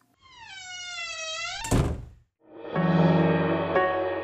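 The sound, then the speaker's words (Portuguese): A long, squeaky hinge creak ends in a single loud slam of a door or shutter banging closed, followed by a second rough, grinding creak as another swings shut, as village residents shut their windows and slam the doors of their houses. “Enquanto passavam, os insatisfeitos moradores fechavam suas janelas ou batiam a porta de suas casas.”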